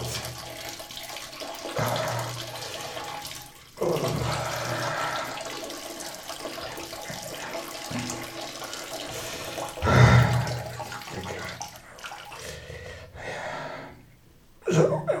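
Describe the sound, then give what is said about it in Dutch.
Morning urine pours into a glass in a steady, hissing, splashing stream for about fifteen seconds, with a louder gush partway through and a few drips as it tapers off, filling the whole glass. “Zo is een heel glas vol.”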